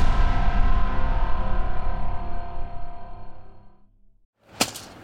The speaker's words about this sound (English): Hear that? It's the sound of someone whacking the ground with a rake. Specifically, they're beating around the bush